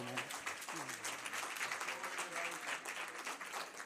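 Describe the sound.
An audience claps steadily, a dense wash of many hands that holds for a few seconds, with a voice or two briefly audible at the start.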